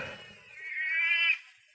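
A huge, furious Maltese cat in a yard lets out a single drawn-out yowl, rising into a strained, wavering wail that holds for about a second before breaking off. It is heard alone, with no talking.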